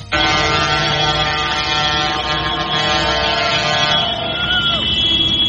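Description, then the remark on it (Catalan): Loud, continuous din of tractor engines, some 2,000 tractors filling the streets of Barcelona on a Wednesday, with several sustained horns blaring over it, the droning tones holding steady, then one pitch sliding at the end. A murmur of voices may sit beneath. “Des de primera hora de la tarda d'ahir fins ben entrada la nit, 2.000 tractors van col·lapsar els carrers de la capital catalana.”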